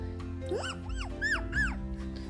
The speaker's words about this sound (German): Und jedenfalls dann, also falls ihr das im Hintergrund hat, das ist unser Hund. Und der fiebt immer.